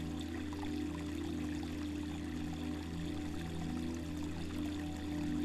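Water flows steadily in a continuous, even rush, like a stream running over rocks, with a low rumbling undertone and no voices.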